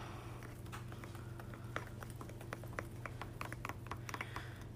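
Scraping thick oobleck off the sides of a container, heard as an irregular run of small clicks and scratchy taps over a low steady hum, with no talking.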